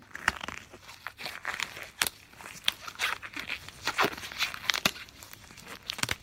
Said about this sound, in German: Das ist das Geräusch, wenn man sich Gummihandschuhe über die Hände drüber zieht und seine Hände da reinzwängt.